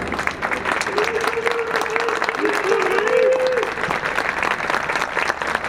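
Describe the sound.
Sustained applause from a large crowd of civilians in the courtyard at Anıtkabir during the 29 October ceremony, beginning as President Erdoğan appeared after the wreath-laying at the mausoleum: a dense steady patter of many hands clapping throughout, with a faint tonal cheer or voice rising briefly in the middle.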